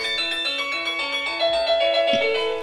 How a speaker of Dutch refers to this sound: Oké, nou, ik heb dan zit ik op de bank en dan zie ik de postbode al aankomen lopen door het raam. En dan weet ik al, ja, dan denk ik ook al echt van chips, want dan hoor ik zo de bel.